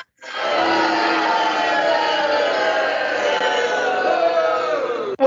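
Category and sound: crowd, crowd booing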